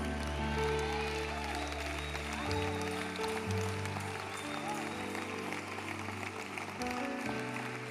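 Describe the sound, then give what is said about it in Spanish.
An audience claps steadily for several seconds, a dense crackle of many hands blending with sustained, held musical chords that shift partway through and carry on underneath. “Dale el aplauso.”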